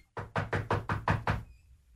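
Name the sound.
knocking on a door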